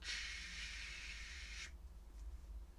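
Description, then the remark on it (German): A voice makes one long, steady snake-like hiss demonstrating the German 'sch' sound, fairly loud, lasting about a second and a half before cutting off, leaving only a low background hum. “Das spricht man richtig voll aus wie Schlange. Oder wenn ihr den Wasserhahn aufmacht.”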